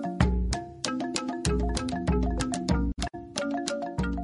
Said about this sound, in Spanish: Al principio fue el humo. Luego vinieron los tambores.